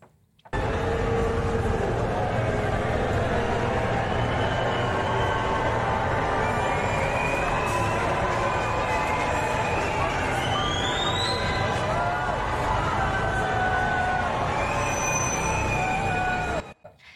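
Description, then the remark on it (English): A large crowd roars steadily for about sixteen seconds as Boris Johnson and his wife arrive at St Paul's, loud cheering mixed with a few scattered boos, with shrill whistles rising above the din now and then. “Now, look, I don't know if your ears work differently to mine, but when I listen to that clip, yeah, there might be a few randoms booing at the start or whatever, but that's, to me, I heard more cheers.”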